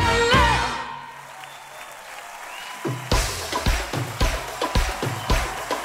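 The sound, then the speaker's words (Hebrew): A concert audience breaks into applause as the music fades out, the clapping building into loud, fairly rhythmic bursts that continue to the end. “מחיאות הכפיים בהופעה”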